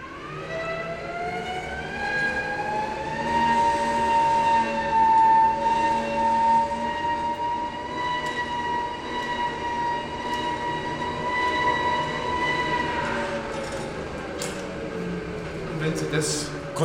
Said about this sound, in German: brauchen sie von 2000 Leuten mindestens 1500 kräftige Männer, die sich abwechseln und hier dann kurbeln, um die Luft eben da reinzupumpen, wenn die Elektrik ausfällt.